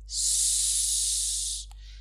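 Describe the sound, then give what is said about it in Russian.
A single long, steady breath of air blown out, a bright hissing whoosh lasting over a second, then a brief soft click and a faint trailing hiss. “Мы подуем высоко. С мы подуем низко. Мы подуем далеко.”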